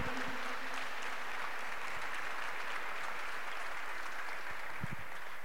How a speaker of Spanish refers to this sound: Alguien aplauda, por favor. Alguien diga amén, aleluya.